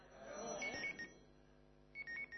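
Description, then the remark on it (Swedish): A mobile phone rings with two short bursts of a bright electronic ringtone about a second apart, heard at moderate volume over a low, murmuring room background. “nu ringer min telefon”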